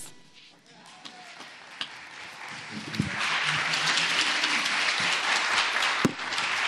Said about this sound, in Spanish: El aplauso principalmente es para ustedes.